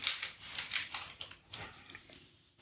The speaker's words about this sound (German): die Hörer zu Hause wundern sich jetzt, warum knistert und knackst die ganze Zeit.